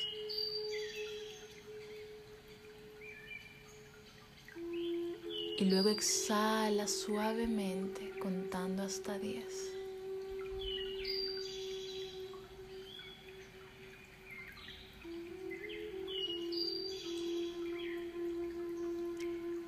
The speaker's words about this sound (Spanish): Antes de comenzar, quiero invitarte a que conectes con la música que estamos escuchando de fondo.